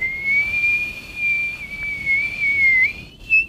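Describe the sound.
A steady, high-pitched whistle imitating wind, held as one long sustained tone that wavers slightly in pitch before rising briefly at the end, with no talking over it.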